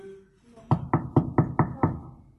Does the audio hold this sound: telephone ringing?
no